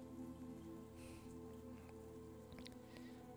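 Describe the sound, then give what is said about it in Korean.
Steady rain falls with a continuous soft patter and occasional brighter drips, heard alone with no voices, at an even, moderate level throughout. “비가 오는 소리도 들어가는데 괜찮은가요?”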